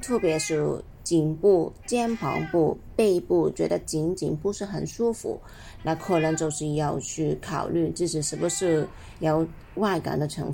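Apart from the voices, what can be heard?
cat meowing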